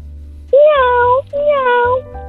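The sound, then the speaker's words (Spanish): A young child, asked to make the noise of a cat, imitates a cat, giving two drawn-out meows in a row with a short pause between, fairly loud over a low background rumble. “¿puedes hacer el ruido de, de, un, de un gato?”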